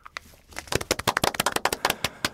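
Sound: applause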